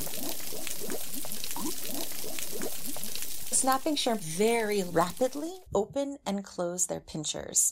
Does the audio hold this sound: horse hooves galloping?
no